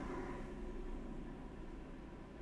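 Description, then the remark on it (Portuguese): A steady, low rumble with a faint droning hum holds for a couple of seconds as a train passes on a railway line beside a home, fairly quiet and with no voices over it. “Eu moro ao pé de uma linha de comboios, portanto aquilo quando passa o comboio faz um barulho.”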